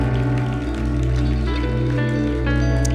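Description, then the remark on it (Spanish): Steady applause from a crowd, a dense crackling patter that stays loud for the full three seconds, with a low sustained musical tone humming underneath. “Un aplauso para el El temor.”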